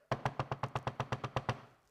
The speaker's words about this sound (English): You know, they keep beating on that door and that's in our mind, that's kind of what beat the thing.